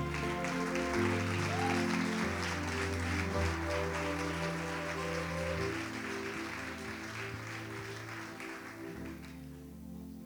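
Loud, sustained applause from a church audience after a prayer fills the whole clip, a dense crackling wash of many clapping hands, with a low sustained musical tone or organ chord underneath. It fades slightly toward the end.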